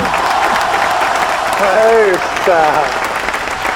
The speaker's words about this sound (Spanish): Esos aplausos son para mí. Sí, es la gente que, trabaja con vos que te aplaude. Eh, son los muchachos, son la producción, la producción que está trabajando sin cesar.